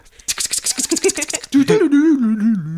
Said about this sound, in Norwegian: Så, Det var vignetten.